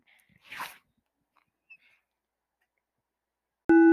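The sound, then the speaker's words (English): A mechanical ventilator pushes one short, airy breath, followed by a few seconds of near silence before a loud, steady electronic tone suddenly begins and holds to the end. “That you're hearing is my ventilator.”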